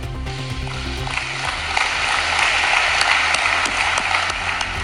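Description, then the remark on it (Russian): Sustained applause from a large audience in a hall at a summit of African heads of state in Saint Petersburg, opened by Vladimir Putin. A dense, crackling wash of many hands clapping swells slightly after the first second and stays steady, with a low hum underneath. “Такими же аплодисментами зал встретил предложение Владимира Путина безвозмездно предоставить в Буркина-Фасо, Зимбабве, Мали, Сомали, ЦАР, Эритрею по 25-50 тысяч тонн зерна.”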